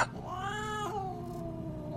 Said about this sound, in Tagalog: Maya-maya ay nag-ingay ang alaga kong pusa.